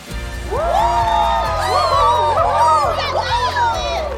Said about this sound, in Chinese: 所有人都帮兔子鼓掌，兔子好开心。